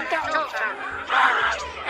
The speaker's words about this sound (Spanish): aquí tenemos todos los vecinos, están gritando